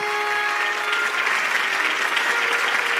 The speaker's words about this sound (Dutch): Alle ogen zijn op Margaretha gericht. In dichte drommen juichen haar nieuwe onderdanen haar toe.